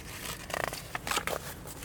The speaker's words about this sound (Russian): Я как раз вот листаю дорожную книгу, ища свои пометки.